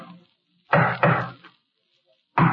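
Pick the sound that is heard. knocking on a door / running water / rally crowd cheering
knocking on a door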